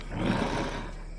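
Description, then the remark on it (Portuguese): A breathy, rushing sniff from a giant, dark-furred wolf's cold nose right by a listener's ear, swelling quickly and then trailing off over about a second, soft and noisy with no voices. “Sente um, um, nariz gelado assim próximo da tua orelha, uma fungada.”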